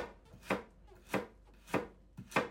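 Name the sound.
chopping vegetables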